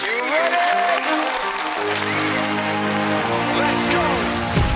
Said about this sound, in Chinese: 那就是一百一十六号来自大连的艺术教育工作者，来让我们掌声欢迎。